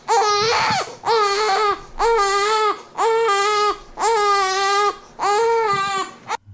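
A baby wails in six long, insistent bursts separated by brief gasping pauses, each cry loud and strained with a high, harmonically rich pitch that rises and falls. No one speaks.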